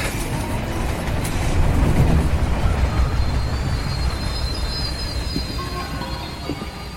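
A train rumbles steadily along the rails, a dense low roar with rattling texture and faint high wheel squeals, swelling slightly around two seconds before holding steady. No voices.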